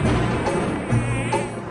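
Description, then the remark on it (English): A mosquito buzzes steadily, a thin whining drone that holds for the whole moment with slight wavering in pitch and no voices around it. “Why don't falling raindrops kill mosquitoes?”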